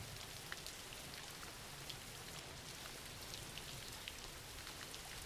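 nature, rain falling

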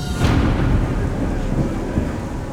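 nature, thunder rumbling

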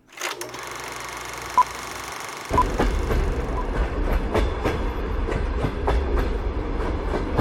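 vehicle, train running on rails

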